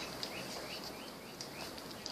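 Faint, distant parakeet chatter: a string of short rising chirps repeating every half second or so over a soft steady background hiss, with no voices.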